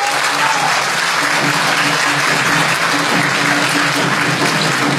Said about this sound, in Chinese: 今天呢，他又回到了母校，他就是著名校友上海复兴高科技集团有限公司董事长郭广昌师兄。好，接下来就是热烈的掌声，有请我们的偶像郭师兄。